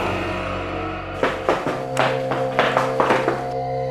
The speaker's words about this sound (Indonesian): Saat ingin kembali masuk ke pantry lagi, tiba-tiba jelas sekali ku dengar suara kaki berlari di belakangku.